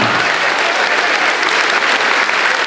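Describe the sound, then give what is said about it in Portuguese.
An audience applauds in rejoicing during a sermon, a dense wash of many hands clapping at an even, loud level throughout, with no pauses and no distinct voices standing out. “Se alegra, jubila, aplaude.”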